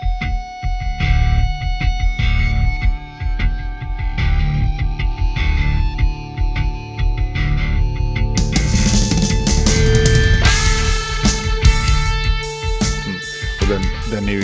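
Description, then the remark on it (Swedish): A rock song's drum intro plays as a recording, busy percussion over a deep, heavy low end, turning louder and brighter halfway through as the full band crashes in. No one speaks. “Jag hade … … där,”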